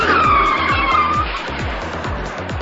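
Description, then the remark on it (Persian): A loud, high tire screech from a braking car slides downward in pitch for about a second, then fades beneath a steady thumping rhythmic beat that continues throughout. “ترمز کن ترمز ترمز”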